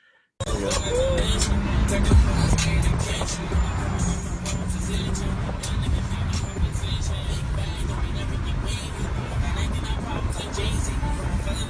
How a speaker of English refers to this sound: So so basically what's happening is the car in front of him is very recklessly driving, weaving weaving in and out of traffic.